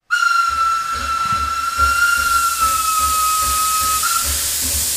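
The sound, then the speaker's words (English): A loud, sustained steam train whistle blows steadily for several seconds over a bright, hissing rush of steam, with a faint rhythmic chugging underneath. “All aboard! Inspiration train!”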